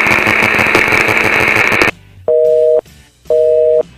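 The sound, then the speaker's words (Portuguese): After a burst of loud, dense noise cuts off, a telephone busy tone sounds twice as a phone call to Los Angeles drops: steady mid-pitched beeps, each about half a second long, separated by short silences. “Ca caiu é... a ligação, não consegui.”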